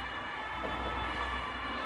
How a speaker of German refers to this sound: Das wird jetzt kurzzeitig das sehr, sehr laut. Die Sirenen, ja, nur ja, hinter uns sind die Sirenen.